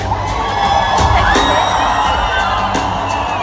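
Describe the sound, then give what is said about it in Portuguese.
A large concert crowd in São Paulo, Brazil, chants "Ele Não" loudly in unison, many voices blending into a steady roar with rhythmic swells and shouted accents running throughout. “ao vivo em São Paulo, com uma multidão em coro a lembrar lembrar Ele Não”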